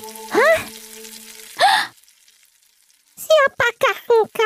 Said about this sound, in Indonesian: Terdengar suara seseorang sedang memasak. Sang nenek terkejut melihat seorang gadis cantik sedang memasak di dapurnya.